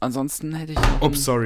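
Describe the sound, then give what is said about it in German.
A single dull knock of a mobile phone bumping against a hard surface, fairly loud in the middle of ongoing conversation, with a voice talking before and after it. “das war mein Handy.”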